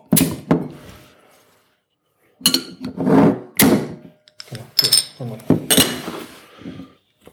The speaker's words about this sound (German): geb ich für die Flasche auch eine 8 und dann schütten wir jetzt mal ein. Pass auf, ja, wir machen mal auf.